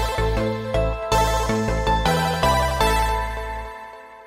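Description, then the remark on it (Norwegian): A short, bright musical segment jingle of punchy synth chords changing in a quick, steady rhythm, played loud with no voices, then ringing out into a fading tail. “Kjør vignett.”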